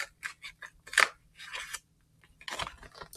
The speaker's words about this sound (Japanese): ということで、早速、えー、ハサミを入れていきたいと思います。このね、ハサミを入れる音も皆さんに聞こえますでしょうか